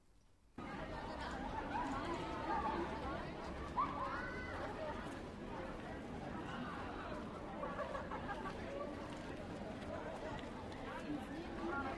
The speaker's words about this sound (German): Ich vermute das ist ein entweder ein Spielplatz oder ein Schulhof. Also ich höre Kinder und Jugendliche stimmen. Ja, super. Sehr gut. Schulhof ist richtig.